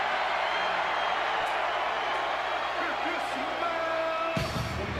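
A huge wrestling arena crowd cheers and roars in a loud, unbroken wall of noise, with occasional louder shouts rising out of the din before a brief swell near the end.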